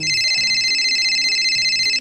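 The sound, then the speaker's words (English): A phone rings with a steady, high electronic trill that holds loud for the full two seconds, with faint low thumps pulsing underneath. “Is that my phone?”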